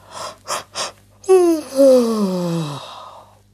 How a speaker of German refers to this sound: Frau Usebuse gähnt.